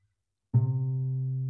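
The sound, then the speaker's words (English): A single low musical note, a C, starts after a brief silence and rings out steadily with rich overtones, slowly fading slightly as it sustains. No voices are present. “And if we break down a C minor chord, we'll see that it's made up of the notes C, E flat, and G. And they sound like this”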